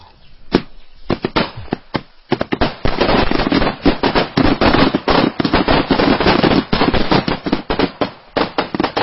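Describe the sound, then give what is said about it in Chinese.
A long string of ceremonial firecrackers goes off during a family's ancestor-worship rite at the ancestral graves, held on a grandson's wedding day. A loud, dense barrage of sharp cracks and pops rattles on rapidly and unevenly for about nine seconds, with no voices. “礼炮声后，董老汉和儿子董永站起身，又郑重其事鞠了三个躬，告慰了先人。”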